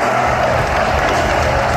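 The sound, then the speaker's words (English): A capacity crowd at an arena basketball game between the New York Knicks and the Miami Heat applauds and cheers in a loud, dense, continuous roar that holds steady throughout, with no single voice standing out. “Another capacity crowd at the world's most famous arena.”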